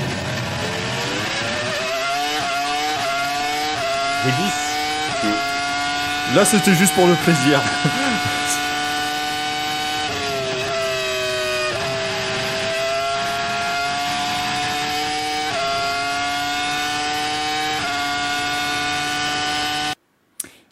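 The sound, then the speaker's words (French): The Formula 1 engine of Michael Schumacher's car at Magny-Cours in 2002, in July, the weekend he won his fifth world title, screams at high pitch, its tone rising and dropping through gear changes with a brief burst of roughness midway, while a voice speaks briefly over it before it cuts off. “Non, là, c'est Michael Schumacher à Manicourt en 2002.”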